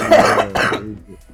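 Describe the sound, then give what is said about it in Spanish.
Two harsh coughs in quick succession, loud and raspy, trailing off into a quiet low rumble. “No, no, digo, por, la tos, por la tos.”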